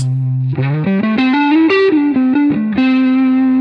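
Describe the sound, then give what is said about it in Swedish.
A distorted electric guitar, played through the neck pickup with the bass control turned fully up, plays a short melodic line of sustained, stepping notes with a thick, heavy low end, loud and alone with no talking. “Här är full bas.”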